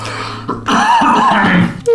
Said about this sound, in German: jetzt muss ich äh, husten, eine Sekunde, ich muss mal kurz aufhören.